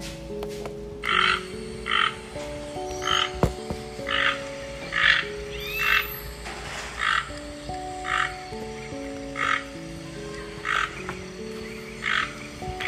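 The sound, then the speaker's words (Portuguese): A toucan, one of five toucans in a nest, gives a steady series of hoarse, croaking calls, about fourteen evenly spaced pulses, clear, over a soft melodic music background with no talking. “Eu vejo com os meus olhinhos cinco tucanos no ninho. Vamos ouvir o tucano?”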